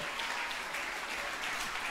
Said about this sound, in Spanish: Démosle un aplauso bien fuerte a ese Jesús maravilloso.